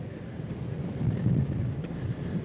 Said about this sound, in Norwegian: Jeg skjønner hvis det blåser veldig i mikrofonen. Det er motvind og underbakke.